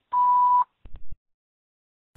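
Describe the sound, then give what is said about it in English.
A single loud answering-machine beep, a steady electronic tone lasting about half a second, followed by a few soft low clicks and then quiet. “Please leave your name and phone number after the beep.”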